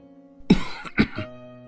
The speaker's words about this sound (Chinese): 门口传来咳嗽声